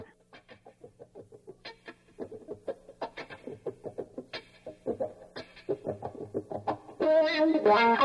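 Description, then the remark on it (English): A voice imitates the wah-wah guitar opening of a rock song with a steady, rapid string of clipped, nasal "wak" pulses, fairly loud, swelling into a denser, sustained wail at the end. “that goes wow wow wow wow wow, but it opens with a wak wak wak wak wak wak wak”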